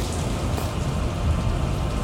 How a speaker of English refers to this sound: As rain starts to fall through the hole into the basement. So, and you can hear lightning striking above.